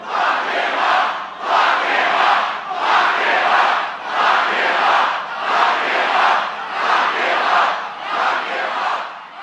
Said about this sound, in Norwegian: brøt det ut taktfaste lock him up-rop i forsamlingen, som Trump tok en lang pause og lyttet til